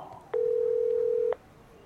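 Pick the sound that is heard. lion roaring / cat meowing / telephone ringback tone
telephone ringback tone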